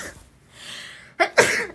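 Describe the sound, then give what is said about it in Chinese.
A livestreamer sneezes: a soft breathy intake builds up, then two sharp, loud sneeze bursts follow in quick succession, the second one stronger with a lingering hissy tail. No talking. “哎呀，等一下，我打喷嚏。”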